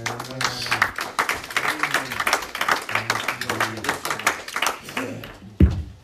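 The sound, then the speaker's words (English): An audience claps steadily in a dense, continuous patter, giving the Lord a hand clap as the next speaker comes up, while voices call out and hum over it, ending with a single louder thump near the close. “So, give the Lord a hand clap as he comes.”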